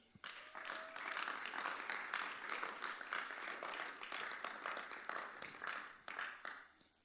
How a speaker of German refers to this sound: Und danke ans Weltkampfteam, ihr macht einen riesen, riesen großartigen Job. Applaus für euch.